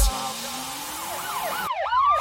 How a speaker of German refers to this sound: Sirenen heulen blaulicht hinter mir.